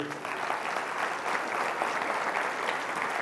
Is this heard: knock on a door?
no